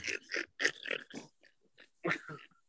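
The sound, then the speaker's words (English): A sleeping man snores: a run of rough, snorting breaths in quick bursts, a pause, then another loud snort with a softer trailing breath, no talking. “fell asleep on his own. Oh yeah. I thought that oh yeah, that's no snoring”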